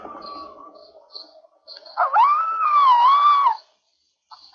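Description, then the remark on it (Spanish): A wild red fox roaming the city of Bristol, England lets out one loud, drawn-out scream that rises sharply and wavers for over a second, after fainter, thinner cries, then stops abruptly into silence. “En Bristol, Inglaterra, los residentes están familiarizados con los gritos de los zorros salvajes que vagan por la ciudad en busca de comida y abrigo.”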